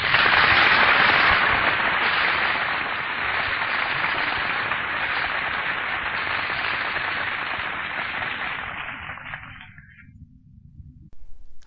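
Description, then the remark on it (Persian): A crowd applauds for poet Siavash Kasraei after a poem recitation, a dense, steady wash of many hands clapping at once, holding strong for about ten seconds before quickly fading out. No one speaks. “خب این آدم هایی که کف زدن برای سیاوش کسرایی و نشون میدادند که سلیقه اون زمان به شعرهای مبارزه چقدر نزدیک هست”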